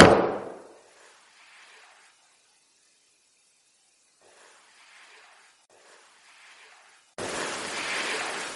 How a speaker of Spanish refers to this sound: Que dije, si estás aquí, haz un ruido parecido a este. Y di un golpe en la mesa.